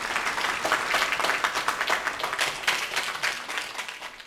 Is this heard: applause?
yes